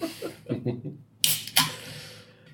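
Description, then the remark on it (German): A can of Löwenmilch drink is cracked open, with a sharp click and then a louder pop that trails into a soft fizzing hiss, after a moment of quiet voices. “Ach, du kennst die Dose schon beim Öffnen allein.”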